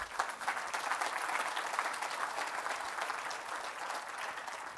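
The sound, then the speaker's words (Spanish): A church audience applauds steadily for several seconds in praise of Christ, a dense wash of many hands clapping, holding an even level throughout without anyone speaking over it. “Dele un aplauso al Cristo, hermano.”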